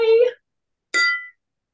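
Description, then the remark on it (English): Two bright clinks of wine glasses touching in a toast, each ringing briefly before fading, separated by a short pause, clear with no talking. “cheers Good to that.”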